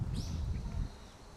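Faint bird chirps at a shrine in the evening, one brief rising call near the start, over a heavy low rumble of wind or handling noise outdoors. No one speaks.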